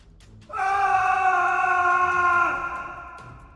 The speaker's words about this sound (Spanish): Cuando la estaca le atravesó el corazón, el hacendado emite un grito de terror y de rabia.